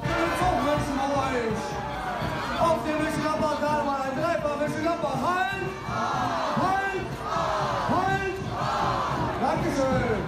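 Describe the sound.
A carnival prince bellows loud, drawn-out shouts at the Veilchendienstag carnival parade in Mönchengladbach, over a dense, roaring crowd that cheers and yells back continuously for the whole stretch, the voices rising and falling in waves.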